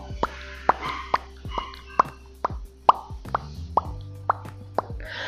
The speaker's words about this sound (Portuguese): E também com os lábios, eu posso prender os lábios e depois soltar o ar de repente. Então faz um som assim, ó.